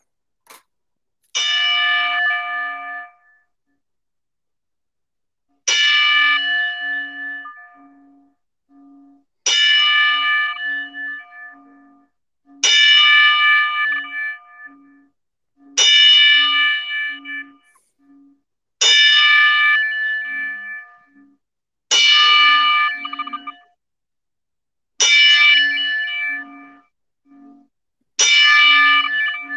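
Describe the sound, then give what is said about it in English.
A wrestling ring bell tolls ten times as a ten-bell salute, slow and evenly spaced, each loud metallic clang ringing out and fading before the next, with no talking in between. “And uh, if you could join us in a moment of silence after the 10 bell salute, that'd be great.”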